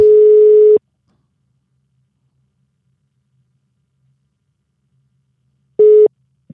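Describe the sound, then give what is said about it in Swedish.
A telephone ringback tone heard while placing a call: one steady electronic burst, a long silent pause, then a second burst that cuts off abruptly as the line connects. “som vi ska ta och ringa upp.”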